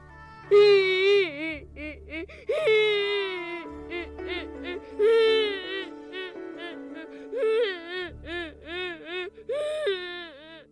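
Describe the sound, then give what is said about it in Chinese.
Childlike whimpering and sobbing in bursts of rising and falling wails, fairly loud, with short pauses between cries, sounding like a voice performing two children from a children's story crying as they hide behind a tree. “他们两个只好拿着那颗又脏又小的旧水晶，偷偷的躲在树后哭了起来。”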